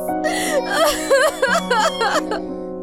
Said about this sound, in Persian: نه عزیزم گریه نکن در بر میگردن جزایشان رو خدا میدهد نترس مادر